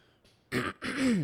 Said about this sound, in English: sorry i keep clearing my throat i just got something stuck there